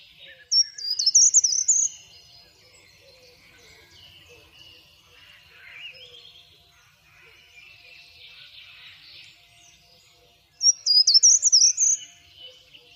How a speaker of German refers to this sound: So klingt der Wald, an dessen Rand unsere Schule liegt.